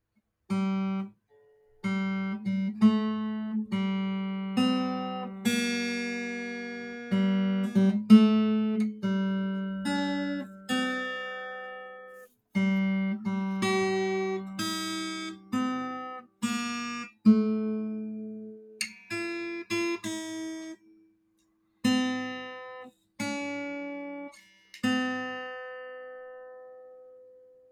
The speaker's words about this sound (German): Ich muss kurz Gitarre stimmen. Aber ah, man hört sie, glaube ich mal.